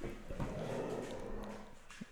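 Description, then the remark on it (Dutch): Low, rumbling growls from dogs in a living room, sustained, with a few brief yips and snarling bursts as they play-fight. “Mijn honden hebben besloten dat dit een heel goed moment is om tegen elkaar te gaan staan grommen in de woonkamer.”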